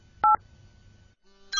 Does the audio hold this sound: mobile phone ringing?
yes